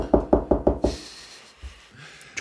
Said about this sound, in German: Äh, du kannst klopfen, wenn ich einen Lesefehler habe.